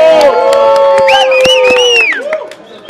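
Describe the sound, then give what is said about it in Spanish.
A loud crowd cheers and shouts, many voices rising and overlapping in high whoops, with scattered claps underneath, then the roar thins out toward the end. “Aplausos a aplausos. ¿Qué tal el público?”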